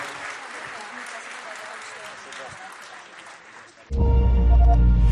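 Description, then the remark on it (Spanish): A large hall audience applauds an award being presented, in a dense, steady patter of many hands for about four seconds, then a much louder tonal sound abruptly cuts in and drowns it out. “porta questo premio Linda el l'applauso di questa meravigliosa sala.”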